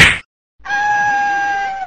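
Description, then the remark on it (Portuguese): A short, sharp punch impact from a video game, followed after a brief gap by a steady, ringing synthetic tone that holds for over a second. No voices. “Deve é um soco.”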